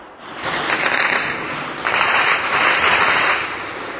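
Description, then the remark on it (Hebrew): Two long bursts of rapid, crackling gunfire, one right after the other, loud and dense with no pauses between shots. No voices are heard. “תחשוב, אם אתה גר במושב ניר צבי, אם אתה גר בשכונת גני אביב, וכל לילה אתה שומע את מנגינת הירי”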